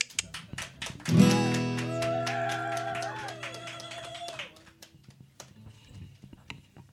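Audience applause, a steady patter of many hands clapping that swells after a second, with sustained musical tones ringing beneath it before the clapping thins out toward the end.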